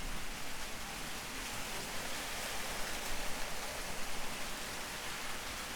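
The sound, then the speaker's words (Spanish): Steady rain pours down outside on a rainy day in a continuous, dense hiss, with a faint low rumble beneath it and no voices, holding an even level throughout. “Como ven, día de lluvia en este momento de grabación. Bueno, como escuchan, mejor dicho.”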